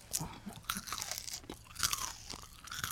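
Close, crisp crunching of a rice cake being bitten and chewed, with sharp irregular crackles repeating throughout, loud and near, no talking.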